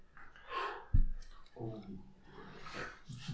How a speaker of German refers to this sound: Die These, ich klicke, heißt, heißt alle Schülerinnen und Schüler mit Behinderungen sollen ausschließlich in Regelschulen unterrichtet werden.